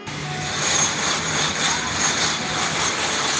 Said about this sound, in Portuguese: Ah, parou cachorro e, e criança e começou, sei lá, britadeira aqui. Tá foda.